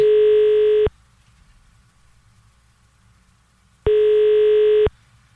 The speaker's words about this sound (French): Ça, c'est parce que le téléphone sonne. Ça sonne occupé, ça. Non, ça sonne, c'est écrit ringing. Ah, ok.